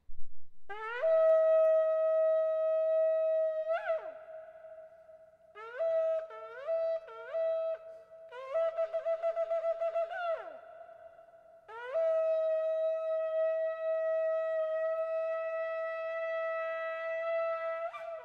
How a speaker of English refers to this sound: our Elul shofar blowing did not take place in the 7 o'clock hour, so we'll do it now in the 8 o'clock hour